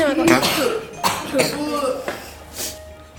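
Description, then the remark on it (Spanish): Several members of a live audience, who had been holding in their coughs, cough in irregular bursts over about three seconds, some overlapping, with faint voices and murmuring mixed in among them. “ahora que todos los que tenían que toser de verdad y todos los que eh, les gusta hacer ruido se han callado”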